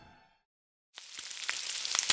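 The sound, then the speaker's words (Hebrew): A brief murmur of a voice fades to silence, then a pan starts sizzling loudly, a steady crackling hiss with scattered pops, as an omelette fries in it. “תוך כדי שהכנתי חביתה”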